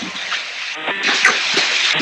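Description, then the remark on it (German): Loud, steady rushing noise inside a car being driven, heard over a phone call from a mobile phone held to the ear, a broad hissy roar filling the whole clip, with faint muffled voice fragments buried underneath. “Nicht, ich sitze im Auto. Ach so, du fährst. Es ist wahnsinnig laut”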